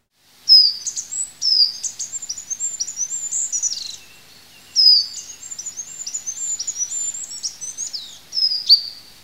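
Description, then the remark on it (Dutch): A very high, thin song of a goldcrest, a small bird in a hedge, repeated in three phrases, each a rapid run of tiny piping notes, clear with no voices. “zoiets simpels als de roep van het goudhaantje. Dat is een klein vogeltje die in de heg zit.”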